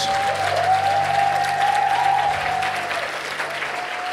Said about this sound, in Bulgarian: Ако ръкопляскаш, ръкопляскай за Исус.